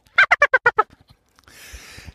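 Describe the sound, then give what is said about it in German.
A chicken sound effect: a chicken cackles loudly in a rapid run of six harsh squawks, followed by a stretch of hissy, rustling noise. “Kannst du das Huhn da nochmal drüber legen?”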